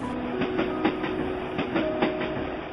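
A train rolls over railway tracks, its wheels clacking in a steady, repeating rhythm over a continuous rumble with a faint sustained hum. No one speaks.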